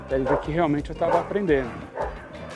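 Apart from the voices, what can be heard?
dog barking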